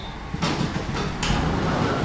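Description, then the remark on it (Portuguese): Elevator doors slide at floor 1 as the lift goes up, a broad, steady whoosh and a couple of soft mechanical bumps, moderately loud over a low hum, with no voices. “Piso 1, a subir”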